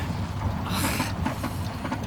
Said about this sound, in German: Nicht anhalten! Das war ich nicht! Der Wagen ist von selbst stehen geblieben.